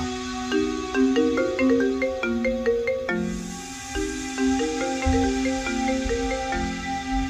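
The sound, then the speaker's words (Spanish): A melodic phone ringtone plays on and on without being answered, its bright chiming notes repeating in a steady, fairly loud pattern with no voices. “Colgó y ya no volvió a responder el teléfono.”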